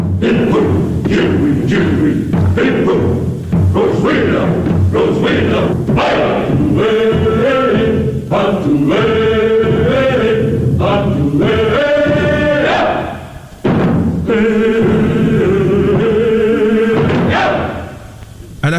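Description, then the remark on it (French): Loud Polynesian-style wedding dance music from a Hollywood film, for a dance number performed by Mitzi Gaynor. Steady thumping drums drive under sustained melodic instruments, playing continuously with only a brief drop near the end before resuming. “Ce film est surtout l'occasion de voir la charmante Mitzi Gaynor exécuter un torride numéro de danse nuptiale polynésienne, revisité par Hollywood bien sûr. Et sur la musique que vous entendez en ce moment.”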